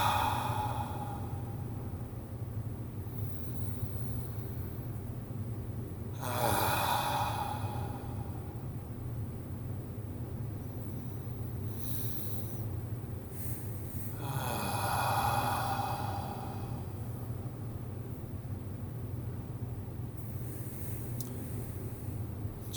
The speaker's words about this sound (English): Let's just take three deep, sweeping, beautiful breaths and let our shoulders just drop down in more relaxation after each one.